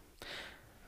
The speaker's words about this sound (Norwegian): Bare sånn, Hvis dere hører noen lyder i bakgrunnen, så har vi bare en liten uh, valp som eh, flyr rundt og hoster litt her. Ja, nå, Hun driver og eter på teppet sitt og litt sånn, så hun har nok mm. litt uh, hår og litt i halsen.